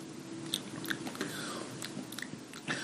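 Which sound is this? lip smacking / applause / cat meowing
lip smacking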